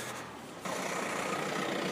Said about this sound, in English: Because as I'm hoping a car doesn't pull up this hill, and the car is pulling up this hill, how inconsiderate of the car.